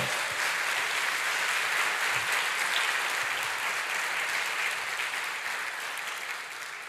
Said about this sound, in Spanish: Dele fuerte aplauso al Señor.